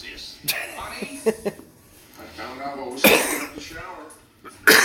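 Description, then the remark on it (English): A person coughs several times in short, uneven bursts: a few sharp hacks early, a louder harsh fit midway, and another abrupt cough at the end, with some throaty vocal sounds between. “Excuse me, guys.”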